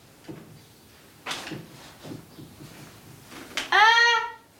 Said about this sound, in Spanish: Toca el respaldo de la silla de madera del escritorio y la mueve, pero está vacía.